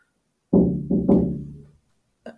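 Three quick knocks on a window pane, each ringing with a resonant, slightly hollow tone that fades out, followed by a fainter single tap a moment later. No one speaks.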